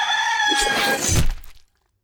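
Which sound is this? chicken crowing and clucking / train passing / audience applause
chicken crowing and clucking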